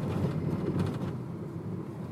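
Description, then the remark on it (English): A steady low rumble and rattle of a car driving over badly paved streets, holding an even level throughout with no voices. “Oh, this noise. It's streets badly paved.”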